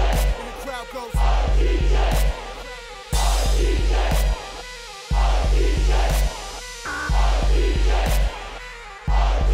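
A crowd roars and cheers over a heavy, pulsing bass beat, the noisy shouting swelling in loud bursts that fall into rhythm with the thumping music.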